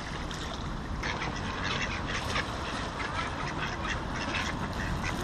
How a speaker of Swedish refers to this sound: Här kommer ankor också.